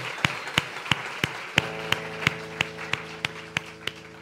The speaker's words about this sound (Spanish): A ver, un fuerte aplauso a Jesús, pero fuerte, fuerte. Eso.